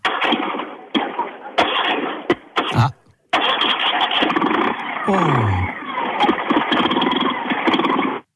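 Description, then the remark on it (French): An old vehicle engine, being started with one hand, cranks and catches, briefly cutting out before restarting and settling into a loud, steady, slightly uneven idle, with a couple of short voiced exclamations. “Vous voulez que je la démarre peut-être Oh bah ce serait mignon ça quand même.”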